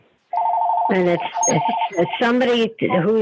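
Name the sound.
phone ringing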